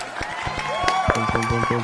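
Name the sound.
applause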